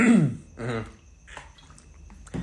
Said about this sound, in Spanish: Permítame tantito en lo que tomo agua.